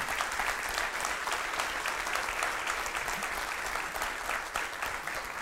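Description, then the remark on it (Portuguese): An audience at a religious service claps steadily, a dense, sustained patter of many hands at an even loudness for several seconds, with no voices rising above it. “Quer aplaudir? Pode fazer isso.”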